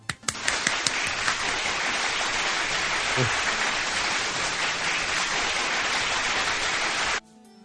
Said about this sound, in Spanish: Un aplauso le vamos a dar.